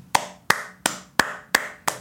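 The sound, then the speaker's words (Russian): Six crisp hand claps in a steady, evenly spaced rhythm, fairly loud, each one a sharp slap with a quick decay. No voices accompany them. “Я же испугался, потому что в Беларуси, если вы хлопаете, это может очень неоднозначно восприниматься.”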